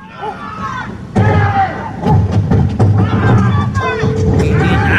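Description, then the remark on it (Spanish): A large trash can is thrown onto a dog that is biting a mail carrier, crashing down with a heavy hollow thud, followed by several more knocks and scrapes, all under an agitated crowd shouting and clamoring. “Y lo agarra y se lo tira al perro encima y ni así lo, lo deja de morder, güey.”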